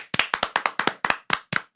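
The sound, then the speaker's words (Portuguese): About a dozen sharp, crisp hand claps in a quick, fairly steady run that slows slightly toward the end, fairly loud with no voices. “tem que bater palmas.”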